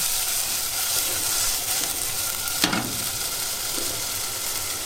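Chicken pieces sizzle steadily as they pan-fry skin side down over medium heat, a dense crackling hiss that holds throughout, with one sharper pop or scrape near the end. No one speaks.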